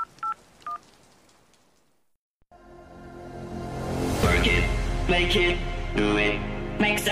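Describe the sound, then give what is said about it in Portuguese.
Three quick telephone dialing tones beep at the start as someone calls back the Scavenger after six missed calls, short and evenly spaced. After a brief silence, a loud, dense wash of sound swells in and fills the rest. “Enquanto você tá ligando para eles,”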